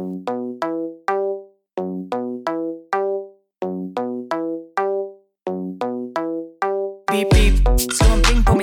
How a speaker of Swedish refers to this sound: Låt oss lyssna på din låt.